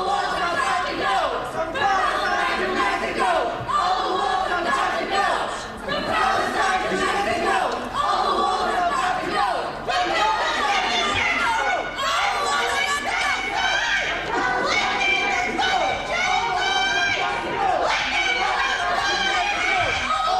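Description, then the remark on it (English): A woman protester screeches and shouts nonstop as she is pushed out of a congressional hearing, over a noisy crowd of raised voices and commotion, loud throughout, with several people shouting at once. “Yeah, I'm watching her on the video here as they're pushing her out. She's really screeching.”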